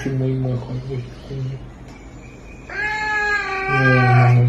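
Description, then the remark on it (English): A young caracal in a played video gives drawn-out, hissing yowls in two long bursts, the second louder and more strained, with a faint voice underneath; it sounds like playback from a small speaker. “Rue the caracal grooming the dog. Okay, that's cute. You can get a. Oh. Okay. Okay. Is he hissing?”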